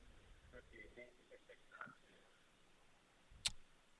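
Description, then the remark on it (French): A faint, tinny voice over a phone line breaks up and fades into thin hiss, followed by a single sharp click as the call audio cuts out. “Moi, je pense qu'on a juste perdu la fin de la réponse.”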